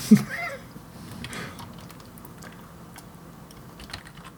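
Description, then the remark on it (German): Rapid, uneven clicking of keys on a computer keyboard, moderately quiet, with a sharper tap at the start and a few louder strikes near the end. “Ja, Selbst ich die längste Nation hättest du schon viermal getippt in dieser Zeit.”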